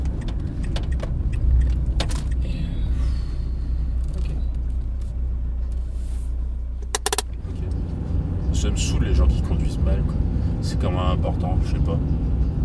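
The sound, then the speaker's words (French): A car is being parked. The engine hums steadily, a brief clatter comes midway, then the engine note drops and settles while faint voices murmur. “Attends, je vais me garer là.”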